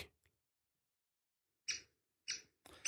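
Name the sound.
great spotted woodpecker call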